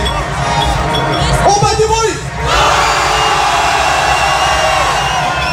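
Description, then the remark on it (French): One section of a large audience roars and cheers steadily, making noise on request, a dense wall of shouting and whooping that dips briefly near the middle before surging back just as loud. “On va voir s'ils font plus de bruit en bas ou en haut, ok”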